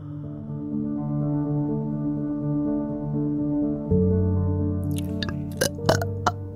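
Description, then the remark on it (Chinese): A long, deliberate burp into the microphone in a recording studio during the FM Taiwan show 鬼哭狼嚎: a low, croaking, rumbling tone that swells louder midway and ends in a few short, crackly bursts. “这个打嗝只是一个不礼貌的打嗝，不要以为我遇到了什么。”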